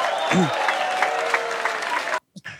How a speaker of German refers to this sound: ja, danke, dass ich wieder von Applaus unterbrochen wurde.